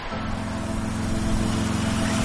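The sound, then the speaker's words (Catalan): A car engine hums steadily as it passes in the rain, its low drone blended with a continuous watery hiss of tires on a wet city street, holding an even level throughout with no voices. “Ha passat el cotxe,”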